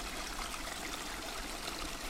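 A small forest brook in autumn trickles and babbles steadily between stones, a continuous wash of running water with no voices.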